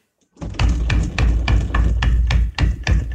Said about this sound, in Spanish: Lo extraño es que el ruido era cada vez más agresivo hasta un punto en el que la puerta se escuchaba así. Estoy tocando la misma puerta que tengo aquí en mi cuarto y voy a mm. simular cómo se escuchaba ese día.